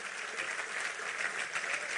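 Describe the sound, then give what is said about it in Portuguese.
An audience claps steadily, a dense wash of many hands applauding at an even level throughout, with no voices standing out above the clapping, as they applaud the Lord. “Eu quero que você aplaude o Senhor por isso, porque é, não ficou parado lá.”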